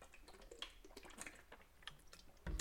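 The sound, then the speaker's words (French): A small sip of water, with soft wet mouth clicks and a faint swallow, quiet and brief with no talking. “Je vais prendre une petite gorgée d'eau.”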